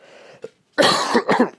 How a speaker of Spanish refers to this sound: Tengo una tos de chucho espantosa mucha, pero ahí vamos, medio curándola con jengibre.